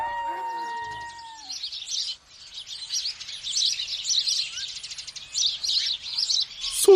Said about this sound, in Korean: 뻐꾸기 소리개 콩새 박새 큰 새도 작은 새도 모두 놀라 달아나